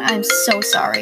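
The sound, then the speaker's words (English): A mobile phone ringtone, an incoming call from the speaker's mother, plays as a steady electronic melody while a person speaks over it, the ringing partly masked by the apologetic-sounding voice. “and that is my phone.”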